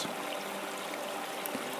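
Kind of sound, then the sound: nature, babbling stream water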